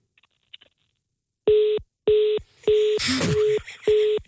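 A telephone tone after the Energy Aamu radio morning show hangs up on a call: five loud, evenly spaced beeps at one steady pitch, with a brief crackling burst of noise over the third and fourth beeps. No one speaks.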